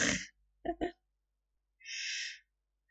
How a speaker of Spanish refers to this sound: Estuvo toda la noche roncando y ahora se escucha.